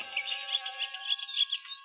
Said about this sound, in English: You stop to listen for the sound of dogs, but all you hear is the sleepy buzz of the forest.